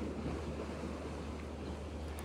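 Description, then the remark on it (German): Waves from a passing ship's wake wash steadily against a lake shore, a continuous rushing swash with a low rumble and some wind buffeting, no voices present. “Und jetzt kommen gerade die Wellen.”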